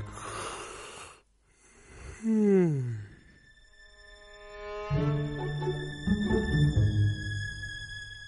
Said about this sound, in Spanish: Bostezo.